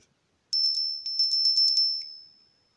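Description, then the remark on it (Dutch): A small bell rings rapidly over and over for about a second and a half, bright and high-pitched, its tone lingering briefly before fading out. No one speaks. “Hé, hey, wat hoor ik? Een belletje.”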